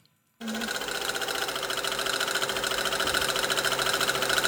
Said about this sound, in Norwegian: Symaskina går jevnt og trutt på Bunadshuset i Stavanger.